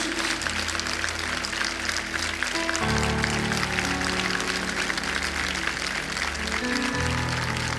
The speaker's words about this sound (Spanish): Dele un aplauso al Señor y colóquese en pie. Vamos, apláudale más fuerte a Jesús.